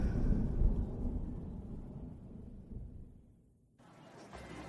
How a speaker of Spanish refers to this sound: cuando a lo lejos escuchas un fuerte trueno anunciando una próxima tormenta.